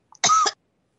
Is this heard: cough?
yes